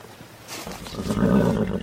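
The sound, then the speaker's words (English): A single horse neigh builds from a breathy start into a loud, quavering whinny, with no voices present. “Mount up your horse, Corporal, and address me with the respect due a colonel in the United States Cavalry.”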